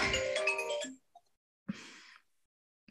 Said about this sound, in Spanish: Perdón, nunca me hablan por teléfono y justo hoy me están.